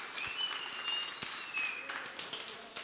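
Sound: audience applauding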